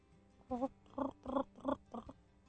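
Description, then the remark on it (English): A person vocally attempts to imitate a cricket, producing five rolling, warbling notes in a steady rhythm, moderately loud, with a croaky quality that sounds like a sandhill crane rather than a cricket's chirp. “Yeah, that did sound like a crane, didn't it? I was it trying did. to do a cricket, but it, it was a crane.”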